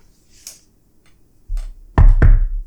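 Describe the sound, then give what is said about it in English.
A few scattered light taps lead into two loud, heavy knocks on a door in quick succession, resonant, with no voices. “Oh, well, folks, of course it was 2015's Knock Knock. Knock Knock.”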